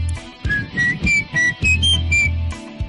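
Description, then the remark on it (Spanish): A short, catchy jingle melody whistled, several bright distinct notes in a quick rhythmic phrase, clear and fairly loud with a steady pulsing backing beneath it. “Ese que chiflé, ¿qué es?”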